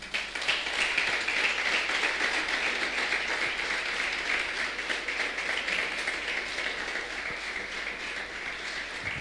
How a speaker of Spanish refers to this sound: Un aplauso grande al Señor.